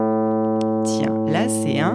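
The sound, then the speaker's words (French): A single steady musical tone, a held note A, sounds continuously from start to finish at an even level, while a man starts speaking over it partway through. “Ben non, c'est un la.”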